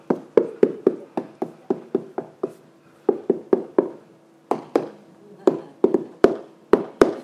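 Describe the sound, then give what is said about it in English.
Firm knocking on a door, roughly twenty solid raps in uneven bursts with short pauses between groups, each knock sharp and resonant, with no voices over it. “I stand at your door and knock.”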